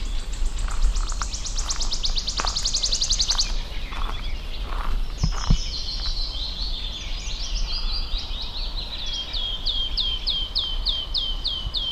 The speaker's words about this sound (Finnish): Tässä lähistöllä on myös sirittäjä. Se on helppo tunnistaa äänestä. Ja nimikin on tullut äänen perusteella.